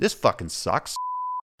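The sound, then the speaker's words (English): A man speaks briefly, then a steady electronic censor bleep cuts in, a single pure tone held for about half a second before going silent. “did I match that beep up?”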